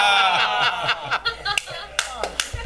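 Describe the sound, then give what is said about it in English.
One person claps alone in West Virginia, a handful of sharp, bright claps spaced about half a second apart, rising over a quiet chuckle and murmur of voices at the start. “There's the one person clap.”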